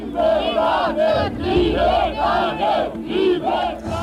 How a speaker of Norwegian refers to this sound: Det er julaften, og frihetsropene runger i Romania.